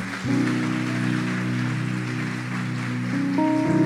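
Steady audience applause fills the whole stretch, a dense crackling wash over sustained low musical chords that shift partway through; no one speaks.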